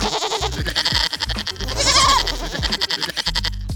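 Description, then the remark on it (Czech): Young goats bleat noisily throughout a house and almost without pause, several wavering cries overlapping, with one loud drawn-out bleat in the middle. No one speaks. “Těžké to hledání neměl, neboť kůzlátka dělala rámu přes celý dům.”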